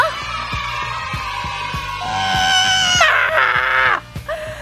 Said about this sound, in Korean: 아! 아니에요, 여러분. 이 정도 함성으로 시작을 못해요. 아시잖아요. 다시 한번 소리 질러!